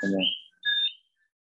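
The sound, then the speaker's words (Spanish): Small birds give a few bright, high chirps in two short bursts, with a brief bit of voice at the very start and quiet between calls. “El sigue de pajaritos. Sí, eso ya no le puedo, no me hacen caso, madre.”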